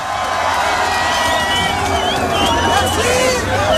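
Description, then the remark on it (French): A large concert crowd in Marseille cheers and shouts in a continuous roar, with whoops and whistles rising above the dense babble of voices and steady loud noise throughout. “merci de faire du bruit pour.”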